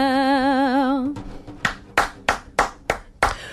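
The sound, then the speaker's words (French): A sustained, wavering sung note fades out, then a single person claps alone in the studio in the morning, about six sharp, fairly loud claps in a steady, unhurried rhythm. “Je suis seule à oh. applaudir dans le studio ce matin.”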